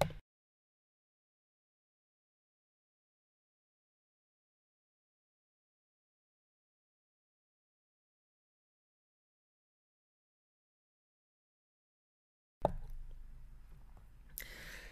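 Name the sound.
sipping tea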